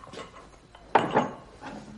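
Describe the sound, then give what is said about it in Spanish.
An apothecary sets a glass bottle down on a wooden shelf in his shop with a single solid knock and a brief faint ring, surrounded by quiet background sounds and soft shuffling. “Los observa atentamente y coloca una botella en una estantería.”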